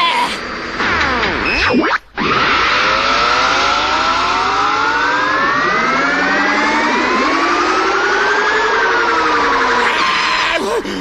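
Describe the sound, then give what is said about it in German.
A car drives loudly during a first driving lesson, its whining engine pitch climbing steadily as it accelerates, with a sharp cut of silence early on before the revving resumes. “Wunderbar, Die Bremsen scheinen zu funktionieren”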